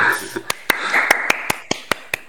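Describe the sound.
Brief applause: roughly ten sharp, crisp hand claps at a loose, steady pace, with faint voices murmuring underneath.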